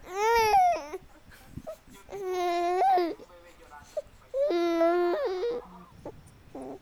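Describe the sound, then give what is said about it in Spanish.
A three-month-old baby cries in three long, wavering wails separated by short pauses, fairly loud, with a few softer babbling sounds in between. “él es un bebé de tres meses y pues aquí está con nosotros.”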